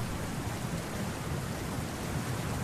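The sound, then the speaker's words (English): A steady, enveloping wash of rushing water, like heavy rain or a torrent, fills the space evenly with a deep low rumble beneath and no voices. “The rushing of water from what feels like everywhere.”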